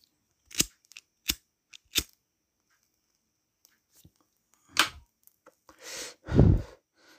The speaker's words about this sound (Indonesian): Dor, bakar rokok dulu.